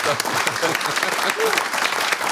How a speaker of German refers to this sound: Und darum ein riesen Kompliment, riesen Applaus an euch als SRF.